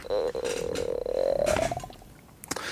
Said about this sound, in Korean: 배에서 꼬르륵 소리가 엄청 나더라고요.